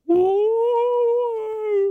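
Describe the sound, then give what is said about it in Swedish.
A single voice imitates a ghostly howl, holding one long, steady, mid-pitched wavering "ooo" for about two seconds at a fairly loud level, rising slightly and then easing off. “Men det var ändå ett spökljud du gjorde.”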